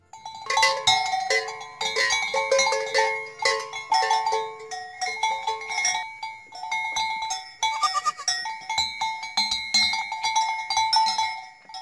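Many bells clank and jingle continuously as a herd of goats (billy goats) of a fundo and fecho de pasto community moves, with overlapping metallic tones ringing in uneven rhythm and occasional bleats mixed in. No one speaks.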